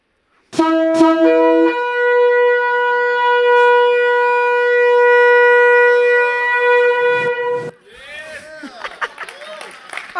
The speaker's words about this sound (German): Also die Schofar, das sieht etwa so aus, das Widerhorn. Und an diesem Tag hat man das Widerhorn hundertmal, mindestens hundertmal blasen. Und das hätte etwa so getönt.